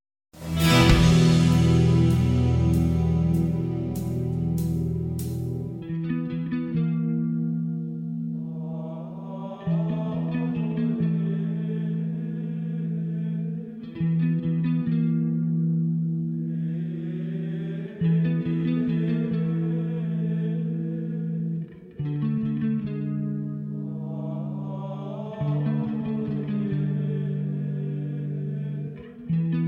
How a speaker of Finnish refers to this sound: Sitten päästään basso breikkiin.